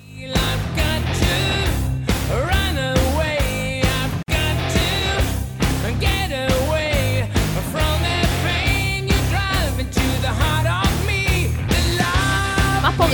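A hard rock band plays a 2011 cover version of a song, made for an album of covers and re-recordings, at full volume, with heavy drums and bass under a sung lead vocal, steady and dense throughout apart from a split-second dropout early on.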